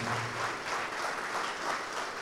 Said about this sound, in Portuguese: Vamos aplaudir mais ao Senhor Jesus, que está chegando mais gente.